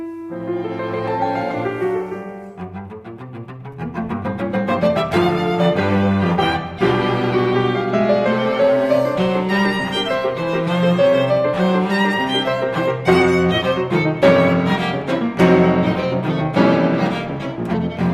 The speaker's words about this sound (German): Er hier sitzt auch in der Jury als Vertreter der Klavierfraktion …. Hier hören wir ihn mit seinem ….